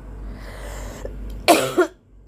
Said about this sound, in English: Excuse me, I have to cough. I'm sick.